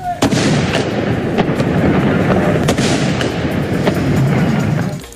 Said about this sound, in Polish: Stańcie do apelu! Salut armatni!